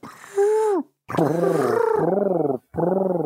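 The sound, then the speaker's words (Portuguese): A voice imitates the communication noise of the ant people, several loud groaning and warbling vocal bursts with a rapid fluttering, gargly pulse, separated by brief pauses and no actual words. “como é que é mesmo que os homens formiga se comunicavam? Qual era o ruído?”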